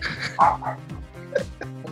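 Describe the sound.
A person vocally imitates a dog barking, a few short, rough yapping bursts in quick succession, moderately loud with no background noise.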